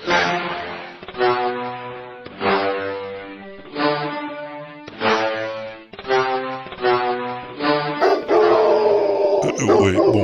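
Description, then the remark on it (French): A dog sound mixed with a trombone sound, played on a computer keyboard as a melody of about nine brassy, bark-like notes at shifting pitches, loud, ending in a denser sustained swell. “Alors, sur le site, tu choisis deux sons à mélanger, par exemple un chien et un trombone. Et tu peux jouer du chien trombone sur le clavier de ton ordinateur.”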